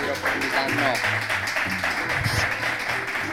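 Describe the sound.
A crowd claps steadily in sustained applause for guests being thanked for coming, staying loud throughout, with voices talking and calling out over the clapping.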